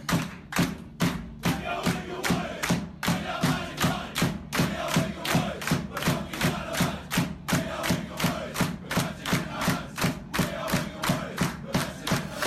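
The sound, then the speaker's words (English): A big bass drum booms in a steady, regular beat, banged by a player on his first appearance, while the team's players loudly chant a club song along with it, a rowdy group singing together in a reverberant space. “all the boys sing a song, mm. which I take is a club related song, and the guy who uh, is playing for the first time bangs the drum.”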